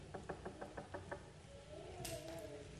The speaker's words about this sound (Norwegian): Og så en dag så kommer det en og banker på døren.